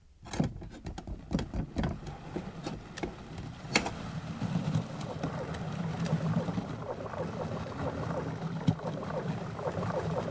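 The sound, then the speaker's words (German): Water rushes and churns steadily into a submarine's ballast tanks as the engine is stopped and the submarine dives beneath the water surface, a dense hissing roar over a low rumble, with a few sharp metallic knocks near the start and no talking. “Tank, fluten.”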